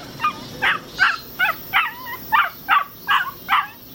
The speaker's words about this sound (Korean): 여자가 나타나자 개는 끙 하고 앓는 소리를 내더니 종종 걸음으로 여자 뒤에 숨었다.